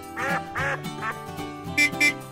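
duck quacking

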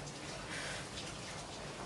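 rain falling

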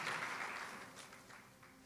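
audience applause

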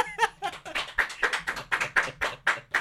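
applause

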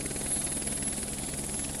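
helicopter flying

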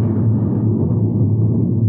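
loud thunder rumble

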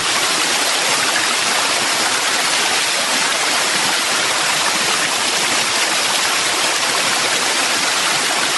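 waterfall rushing water

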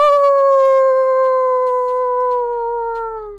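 wolves howling

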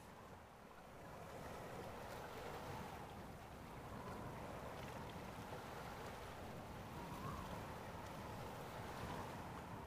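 ocean waves

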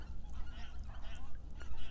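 birds calling outdoors

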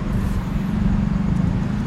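road traffic

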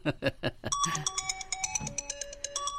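phone ringtone

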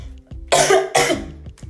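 coughing

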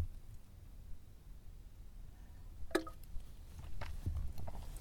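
sipping and swallowing coffee

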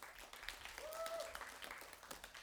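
audience applause

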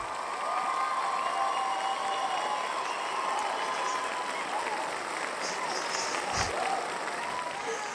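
applause

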